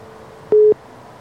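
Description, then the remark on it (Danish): A single short telephone line tone, a steady mid-pitched beep lasting a fraction of a second, loud against a faint background hiss, with no one talking, as a radio studio connects a phone call to a reporter in the field. “der er lidt andet opkald også på linjen.”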